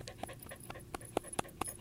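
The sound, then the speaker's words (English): A female dog named Jim Raynor pants in quick, steady breaths, a rapid rhythmic huffing that comes clear, with no one talking over it. “Jim Raynor, the female dog.”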